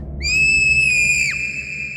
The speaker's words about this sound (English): The light flickered, and the girl screamed.